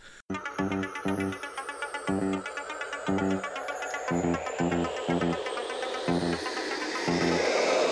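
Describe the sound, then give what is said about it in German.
The intro theme tune of a TV series: electronic, with a driving synth bass pulsing in short repeated stabs, bright synth layers and a rising sweep building over it, loud and continuous with no voices. “das Intro war halt dieses Song, dieses dün, und dann sagen sie, ein Mann, ein Auto. vielleicht schneide ich es hier rein halt.”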